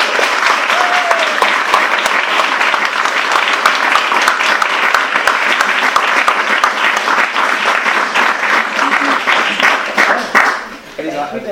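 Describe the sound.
An audience applauding steadily for about ten seconds to welcome two writers at an evening event, dense overlapping claps at a constant loud level, tapering off at the end as a voice begins to speak.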